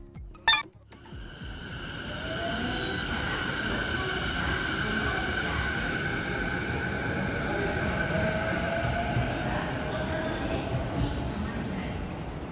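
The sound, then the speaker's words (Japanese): A commuter train, recorded during a commute, rolls along with a steady rumble and sustained high motor whine, after a brief sharp clack at the very start; the noise stays continuous throughout. “通勤電車ってことでね、これはね。”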